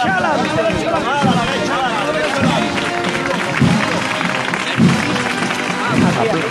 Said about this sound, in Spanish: aplauso del, del, escaso público que queda en Campana la Virgen